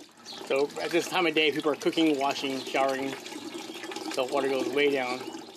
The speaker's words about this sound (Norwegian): Vannet pipler så vidt ut av hageslangen